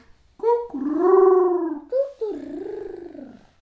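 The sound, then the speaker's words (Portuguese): A voice imitates a dove's coo with a long, low, wavering hum, a brief break, then a second drawn-out coo that slides down in pitch, fairly loud, with no other sounds. “As pombas arrulhavam. Como é que faz a pomba?”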